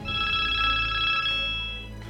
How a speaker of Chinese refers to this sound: 就在这时，电话响了起来。